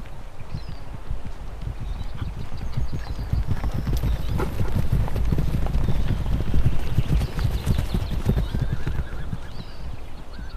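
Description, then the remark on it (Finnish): Horses in an adjacent pasture whinny and neigh while hooves clip-clop steadily across the ground, with a faint breeze in the background and no talking. “Tyttö jää katsomaan viereisellä laitumella olevia hevosia.”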